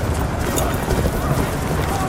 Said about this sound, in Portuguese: A cavalaria romana, a galope, está a derrubar centenas de godos à espada irada, atirando com os cavalos para cima deles.